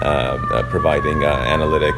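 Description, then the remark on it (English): A wailing emergency siren drifts steadily in the background of a New York City street while a man talks over it, the tone holding a sustained, slightly warbling pitch throughout. “Sorry for the sirens in the background, but like I said, we're in New York City, so it just comes with the territory.”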